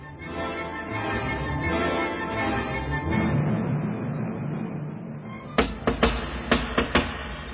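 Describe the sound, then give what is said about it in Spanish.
A steady, muffled rumbling wash fills the first five seconds, then about six sharp, loud knocks on the narrow, iron-covered door of Pondicherry Lodge at night follow in quick irregular groups. “¿Quién llama? Debería usted distinguir ya mi manera de tocar”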